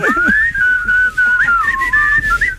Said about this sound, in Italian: Per questo che noi tre fischiamo: uno, due, tre.